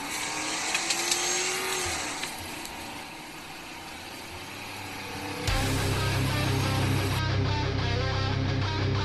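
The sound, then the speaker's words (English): A Ford Crown Victoria car engine runs and revs, rising in pitch, then shifts abruptly around the midpoint into a louder, steady rumble with harmonic engine tones, with no one speaking. “Now sit back, relax, and enjoy the orgasmic sound of a Crown Vic.”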